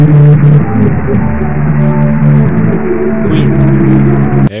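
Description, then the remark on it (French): A song recovered from the vibrations of unplugged earphones lying on a desk plays back muffled and distorted, its sustained tones and melody buried under a constant wash of hiss and static, loud and continuous throughout, with no one talking. “c'est à partir des euh, écouteurs qui étaient posés sur le, sur le bureau”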